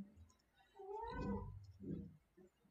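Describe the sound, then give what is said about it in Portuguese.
A cat meows twice, first a long, drawn-out wavering cry and then a shorter, softer follow-up, with no talking and only faint room noise around it. “Agora, nossa, tirar o gato aqui do ambiente.”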